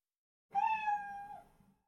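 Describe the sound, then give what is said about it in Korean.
A single clear meow from a black cat in the living room, drawn out for just over a second with a slight downward bend at the end, fairly loud against a quiet background. “그때 웽 하는 소리가 들려왔다. 거실 쪽이었다. 그리고 검은 고양이가 훌쩍 뛰어 내 품에 안겼다.”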